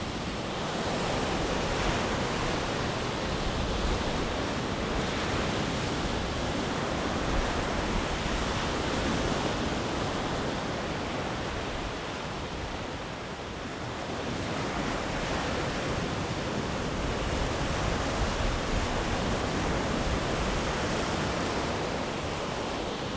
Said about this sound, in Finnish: Tämä on tietysti ihan yhtä huminaa, kun tarkemmin ajatellaan. Tuuli pitää oman äänen, vesi toisen äänen ja sitten lehtiä kahisee. Ja kivet ehkä vielä tuossa rannassa.